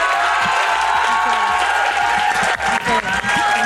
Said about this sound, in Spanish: Nos damos un aplauso por haber estado juntos aquí. Un aplauso para Olimpia, por favor.